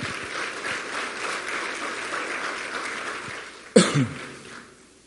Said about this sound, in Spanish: Porque en mi boca hay un milagro. Un fuerte, fuerte aplauso al Señor.